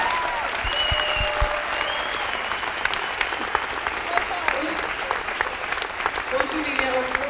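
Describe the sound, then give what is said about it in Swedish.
A crowd applauds steadily for about seven seconds, for everyone taking part in the radio programmes: a dense, even wash of many hands clapping with a few sharper claps and faint voices mixed in. “En applåd till alla som är med.”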